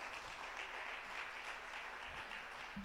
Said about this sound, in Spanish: Amén. ¿Lo crees? Dale entonces un aplauso fuerte al Señor.